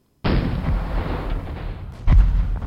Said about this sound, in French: Et juste au bout de quelques jours, quand tu commences à te sentir optimiste, des tirs de mortier se refont entendre, à deux ou trois rues de chez toi.